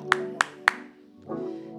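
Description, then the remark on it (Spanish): Three sharp, evenly spaced claps ring out, then a steady wash of audience applause swells in and continues beneath a low sustained hum. “Quiero que le den un, fuerte aplauso a las mujeres que maman y no chonquean.”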